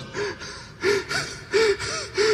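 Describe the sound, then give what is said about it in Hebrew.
A rapid series of sneezes, about five or six loud bursts, each with a short voiced catch. They come close together in an uneven rhythm, with no talking. “ומה שאתה שומע בקורלנד כל הזמן, זה פשוט...”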